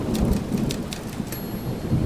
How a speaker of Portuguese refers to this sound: a janela fechada fazia um barulho relativamente leve comparado à tempestade lá fora, a qual era tão forte que parecia que o próprio céu resolveu declarar guerra ao chão.